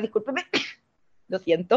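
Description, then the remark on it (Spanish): A single sharp sneeze, from an allergy, bursts out between bits of apologetic speech, followed by a brief pause before the person talks again. “pero también como que volvió a subir el tema de los contagios y quiero estornudar,”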